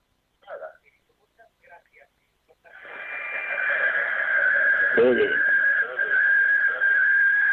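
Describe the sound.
Brief muffled voice fragments over a phone line give way to a loud, steady feedback whine and echoing noise from the caller's radio playing in the background, swelling and persisting to the end, with a dull thump midway.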